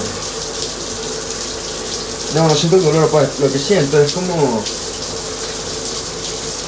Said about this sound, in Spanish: Uy, la agua fría, weón.